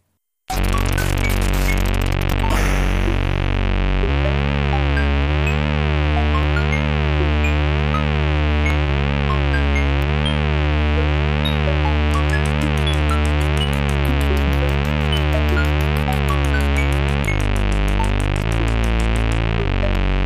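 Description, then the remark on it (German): Retro 8-bit Commodore 64 chiptune cave music with buzzy square-wave tones over a steady, pulsing bass pattern, sprinkled with high plinking blips of dripping water, playing continuously and fairly loud with no voices. “Also man hört da Wassertropfen, man hört so Trippelschritte wie von Ratten, man hört Fauchen von einem Luftzug oder einem fernen Monster.”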